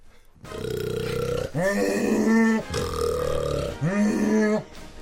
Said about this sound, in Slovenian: Tako je iz Avstralije. Koala.